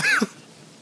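A single short, harsh cough, like someone sputtering after choking on a drink, lasting about a quarter second before fading into near silence.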